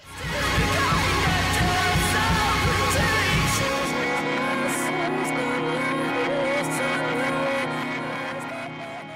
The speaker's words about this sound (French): des coupures abruptes sur des hurlements, comme une scène d'un film qui couperait en pleine crise de nerfs